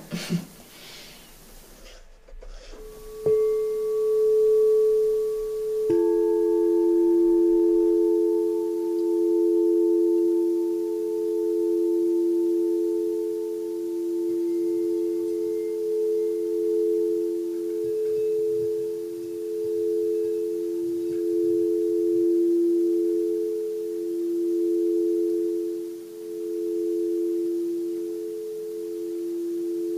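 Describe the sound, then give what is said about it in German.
A crystal singing bowl, made of crystal or quartz glass and shaped like a giant chalice, rings out with a pure, steady tone, then a second, slightly higher bowl joins in; both hum loudly and evenly for a long, unbroken sustain with no talking. “sind, wie du schon sagtest, aus Kristall oder Quarzglas, ganz bestimmte Schalen, wie so Riesenkelche sehen sie aus.”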